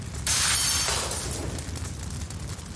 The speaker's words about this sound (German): Walter griff sich einen Gartenstuhl und hämmerte das Fenster ein.